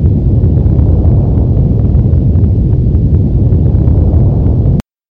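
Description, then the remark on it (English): A deep, continuous earthquake rumble roars steadily and loudly, heavy low-end energy with faint crackling on top, cutting off abruptly near the end. “So I went out and found an audio file that you said really does sound like an earthquake.”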